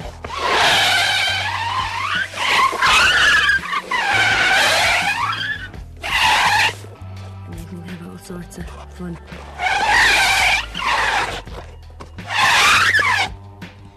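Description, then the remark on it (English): A rubber hot water bottle is rubbed against hospital tiles in repeated bursts, making loud, wavering squeals that mimic tyres screeching in a car chase, with brief low-pitched talk between the squeaks. “This is as old as the hills, this one, and uh, every car chase you've ever heard has been a hot water bottle on kitchen tiles.”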